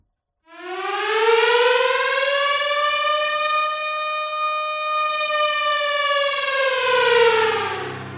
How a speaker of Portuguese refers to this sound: Um barulho de alarme bastante alto e junto com esse barulho, vocês sentem a terra sobre os pés de vocês começar a tremer de maneira bastante forte